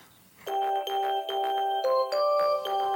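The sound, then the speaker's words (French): A ringing electronic chime plays a short melody of clear, bright tones, several notes in quick succession, loud, with no voices over it. “C'est quoi cette sonnerie”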